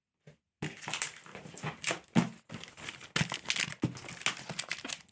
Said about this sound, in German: Uh, da knistert es im Karton. Ha, ich hab's. Karton. Es ist einmal das Heatpad Pro.